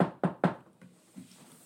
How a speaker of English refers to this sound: thoughts are interrupted by another knock on the door.